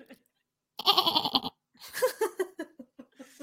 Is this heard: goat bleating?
yes